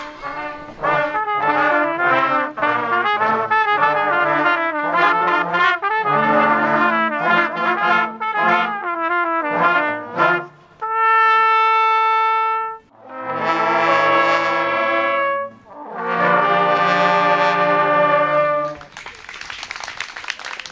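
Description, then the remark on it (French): A band plays brassy music with sustained notes, then audience applause breaks out near the end, a brief burst of clapping after the final notes. “Et c'est sous les applaudissements que je rejoins”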